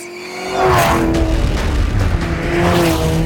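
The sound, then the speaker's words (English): A car engine roars at high revs during a fast-paced speed chase, loud, with pitch rising and falling as it races hard, tires squealing briefly amid the sustained throaty rumble. “It's okay, well, I kind of hear it's going fast because the engine clearly tells me it is.”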